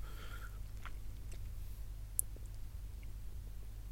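Quiet chewing of a biscuit with scattered crunchy clicks and bites, one sharper crack near the middle, over a steady low hum; no one speaks.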